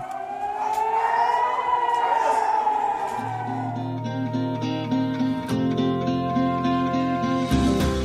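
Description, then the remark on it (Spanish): An air raid warning siren, one of the alarms across the territory sounding to alert the population to reach air-raid shelters, wails, its tone rising and sliding in a long sweep before giving way to sustained, layered droning tones that shift in steps, loud and steady throughout with no talking. “Dicha señal es enviada y se manifiesta con las alarmas presentes por el territorio.”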